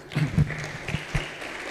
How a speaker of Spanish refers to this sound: Dale otro aplauso a Cristo.